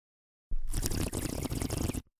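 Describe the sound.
A voice imitates the bubbling of a bong: about a second and a half of steady, gurgling burble, fairly loud, which stops abruptly, with no talking.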